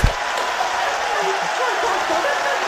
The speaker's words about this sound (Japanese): まだその歓声に場内は沸き返っています